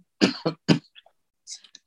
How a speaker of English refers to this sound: Um, I apologize for the cough.